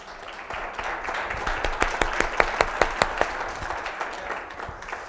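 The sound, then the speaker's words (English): Light, polite golf clap from an audience in a church, a soft patter of scattered hand claps with a few sharper individual claps standing out before it quickly fades. No one speaks over it. “I'm gonna get y'all beyond the golf clap one of these days.”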